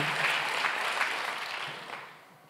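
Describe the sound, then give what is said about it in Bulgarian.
A church audience applauds as an offering to God, a dense wash of many hands clapping that holds steady, then gradually thins and fades over a couple of seconds. “О, ако искаш да дадеш на Бог дарение, да пляскаме.”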